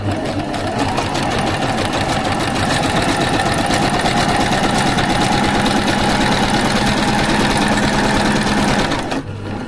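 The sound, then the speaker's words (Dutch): A sewing machine runs steadily with a dense, continuous mechanical whir and rapid ticking, holding an even pace before stopping abruptly near the end. “Als je moeder een naaimachine kocht bij Singer op de Voorstraat, mocht jij als meisje in de zomervakantie die daarop volgde naar de poppenkleertjes vakantiecursus.”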